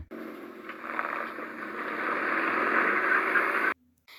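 A car engine turns over and catches, its steady mechanical roar building over a few seconds and holding loud before cutting off abruptly. The car is being started so a mother can drive her child to school.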